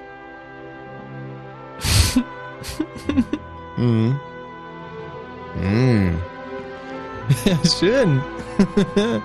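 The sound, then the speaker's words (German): Romantic, Hollywood-style production library music from a production CD, with soft, sustained orchestral chords, plays steadily at low volume beneath a person's brief talk and laughter. “Das ist eine sogenannte Produktions-CD.”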